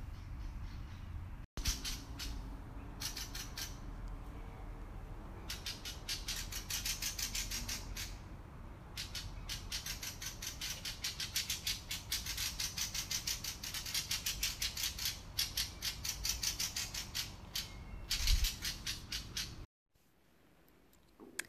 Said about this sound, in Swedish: Eh, det där sista lät som skator tycker jag. Eh, någon får gärna skriva in och säga om det är fel men jag är ganska säker på att det är skator.